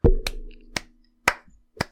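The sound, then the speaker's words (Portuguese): Five sharp hand claps from a single person, crisp, spaced unevenly with short silences between them, with no talking. “Tenho que me lembrar que estes aplausos são audioclaps, portanto não é para cortar depois.”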